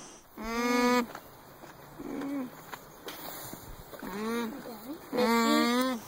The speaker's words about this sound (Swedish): De har väldigt mänskligt språk. De låter tydligt typ som att när man håller eh, handen för munnen och samtidigt pratar. Nu ska vi lyssna på hur alpackor låter.